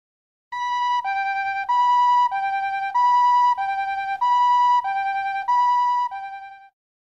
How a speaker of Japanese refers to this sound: これは救急車のサイレンです。